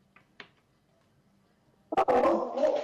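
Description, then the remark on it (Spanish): After a near-silent stretch with a couple of faint clicks, the speaker's dogs suddenly break into loud barking that keeps going for about the last second. “mis perros... ¡Hey, fui!”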